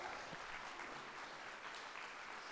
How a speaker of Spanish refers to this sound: Dale un fuerte aplauso, amiga, gracias.